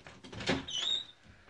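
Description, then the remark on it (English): A woman shuts and locks a door: it thuds shut with a sharp click, followed by a brief high squeak as the lock or handle turns. Fairly quiet, with no talking. “Um, and she's at the door and actually locked it”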